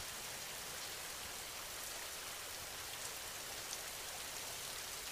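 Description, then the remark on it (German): Steady rain falls continuously, a soft even hiss of countless drops pattering on a surface, fairly quiet and unchanging throughout with no voices. “Tropfen für Tropfen entsteht das angenehme Rauschen des Regens.”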